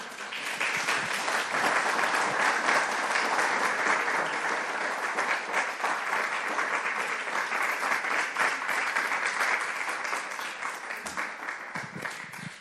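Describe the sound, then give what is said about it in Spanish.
A church audience claps for the Lord steadily for about twelve seconds, a dense, sustained wash of many hands with no pause, fairly loud throughout and tapering slightly at the end. “Dele palmas al Señor.”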